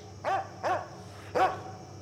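A dog barks three times, short sharp barks with a brief pause before the last one, heard alone over faint background hiss.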